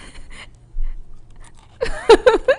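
A thin, purple, oil-free crunchy snack being chewed close to the microphone: faint crackles at first, then a cluster of loud, crisp crunches near the end, mixed with a short hummed vocal sound.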